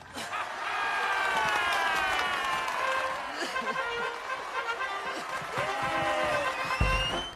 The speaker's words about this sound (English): Everyone's cheering. The like band is playing.